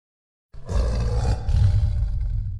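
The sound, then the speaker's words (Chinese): A huge tiger roars in one long, deep, rumbling blast that starts abruptly after a brief silence and holds loud and steady for about two seconds, with a gravelly, throaty texture. “突然之间，一只巨大的吊睛绿色老虎不知从哪里窜出来，瞬间落到了两人跟前。”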